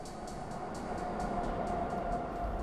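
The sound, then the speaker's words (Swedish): A Tokyo subway train rumbles steadily along the rails, a dense low roar with a faint tonal whine and periodic clacks of wheels over rail joints, continuous with no voices. “Fem högt stående sektmedlemmar kliver på fem olika tåg i Tokyos tunnelbana.”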